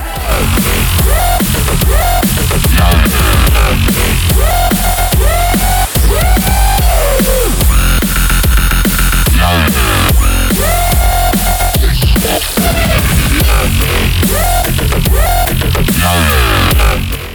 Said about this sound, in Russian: Ну, ничего, когда нет дрели, но очень хочется, достаточно включить какой-нибудь такой лютый дабстеп и наслаждаться звуками. Ну, примерно вот такими.